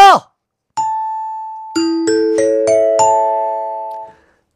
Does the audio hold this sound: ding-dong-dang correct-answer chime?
yes